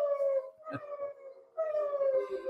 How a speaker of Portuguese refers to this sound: Meus cachorros estão se manifestando.